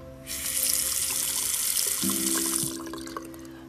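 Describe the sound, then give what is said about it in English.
A kitchen faucet in a newly installed kitchen sink in a new home gushes water into the sink in a steady hiss for a couple of seconds, with a low pipe hum underneath, then shuts off and the flow trickles away. “There's one missing part for my sink, but I installed my kitchen sink yesterday and it looks beautiful”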